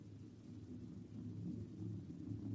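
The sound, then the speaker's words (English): A low, continuous rumble rolls on steadily with no breaks, dense and muffled like many hooves pounding, swelling slightly louder toward the end, as a herd of animals stampedes this way raising dust. “A herd of critters. Look, you see the dust? They're coming this way in a stampede.”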